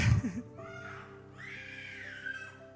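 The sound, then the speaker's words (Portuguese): A baby fusses and cries in a thin, drawn-out wail that rises and falls, fairly quiet, with a short burst of low noise at the start. “desculpa o bebê.”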